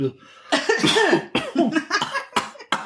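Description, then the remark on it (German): A person coughs repeatedly, a cluster of harsh, raspy bursts followed by a few shorter, sharp coughs trailing off at the end, with no talking. “Jetzt muss ich mal husten, ganz kurz.”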